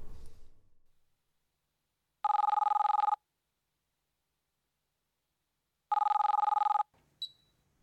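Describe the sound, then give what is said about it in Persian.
An incoming WhatsApp call rings twice, two loud, evenly spaced electronic trilling bursts about a second each, with silence between and no one speaking, followed by a faint brief tone. “اصلا چرا با واتساپ زنگ زدی”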